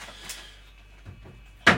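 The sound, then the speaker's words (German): An item is set back into a refrigerator: a few soft handling noises over a quiet hum, then one sharp, loud knock right at the end, with no talking. “Ich stelle es mal wieder in den Kühlschrank.”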